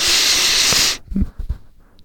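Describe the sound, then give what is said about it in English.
A person imitates a hard sniff from a tiny glass vial of an inhalant (poppers): one loud, hissing inhale lasting about a second, followed by a few short, breathy puffs. “you just like open up this tiny little like glass vial, and you just like smell the odor that comes out of it”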